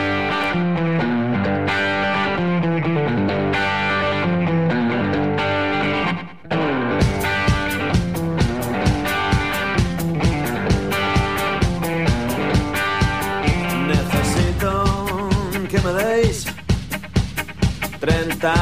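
A loud blues rock song with gritty, distorted guitar; after a short break partway through, a steady driving drumbeat kicks in and carries the full band forward, with no voices.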